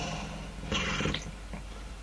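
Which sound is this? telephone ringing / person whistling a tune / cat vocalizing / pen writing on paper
cat vocalizing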